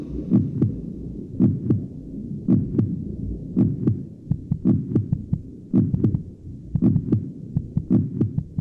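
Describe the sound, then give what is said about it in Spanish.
Two muffled heartbeats, the mother's and the fetus's own as heard from inside the womb, overlap in steady rhythms that drift apart and come back together, deep thumps pulsing through a low whooshing rumble, continuous with no voices. “El feto oye ruidos que van acompañados de variaciones de presión sobre las paredes corporales, pero también oye dos ritmos cíclicos de palpitaciones cardíacas que se separan y se reencuentran, el de su madre y el suyo propio.”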